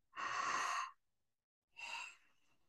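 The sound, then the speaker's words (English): A voice imitates connected breathing for a subliminal breath track: a long, airy breath followed after a short pause by a second, softer one, with no talking. “And it was just simply connected breathing. And it sounded kind of like this.”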